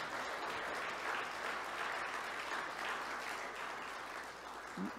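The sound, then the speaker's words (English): An audience applauds steadily for graduates at the beginning of a service, as the graduates come up to get a gift: a dense, even wash of many hands clapping that holds at a consistent loudness for several seconds with no voices standing out. “I think we clap for our graduates at the beginning part of the service.”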